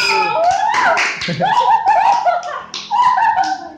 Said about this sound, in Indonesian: Ini para pengurus ya. Pengurus OSIS. Ye, tepuk tangan.